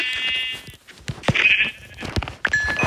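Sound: video game sheep bleating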